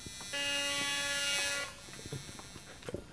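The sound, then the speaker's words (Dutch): A metal detector scanner in a police cell area gives one steady electronic buzz lasting just over a second, harsh and tonal, then cuts off, leaving quiet with a few faint knocks and clicks. “dat is uh, metaaldetector”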